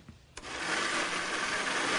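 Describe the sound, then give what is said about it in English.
After a brief quiet moment, a blender making a smoothie switches on abruptly and runs at a steady, loud, high-pitched whir that keeps going without pause to the end. “Let me just whip up a smoothie for you before you go.”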